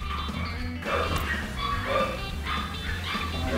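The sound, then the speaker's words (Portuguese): A passing dog barks several times in quick, uneven bursts, set against a steady low rumble of outdoor background noise, with a few faint yips mixed in. “Ah, tem outro cachorro passando.”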